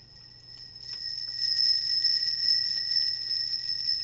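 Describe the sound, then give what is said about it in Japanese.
A handmade instrument of hanging metal nails chimes like a Japanese wind bell (furin), a sustained shimmering high ring with overlapping bright tones that swell and linger steadily, fairly clear, with no talking. “はい、風鈴みたいな音がしてますね。これは先ほどもちらっと言った釘の音涼やかでいいですよね。”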